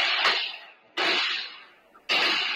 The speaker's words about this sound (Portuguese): uma unidade do exército, e essa é a época do ano em que que os recrutas estão fazendo o teste de tiro de noite. Na semana passada eles estavam fazendo treinamento com um fuzil e esse era o barulho da minha casa.